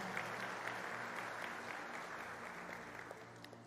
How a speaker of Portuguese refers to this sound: Enquanto isso, igreja, dê uma salva de palmas para receber todos esses irmãos.